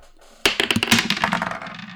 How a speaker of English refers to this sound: So let's grab our dice, let's roll initiative, and let's see who's gonna talk first.